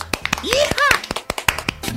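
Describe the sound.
Scattered applause, a few people clapping in sharp, uneven bursts throughout, while excited voices whoop and cheer with rising and falling pitch midway through.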